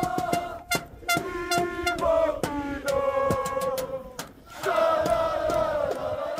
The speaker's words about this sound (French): Je vais vous faire écouter le public là qui est déjà euh, dans le virage Pinot. Écoutez, ils sont déjà dans l'ambiance.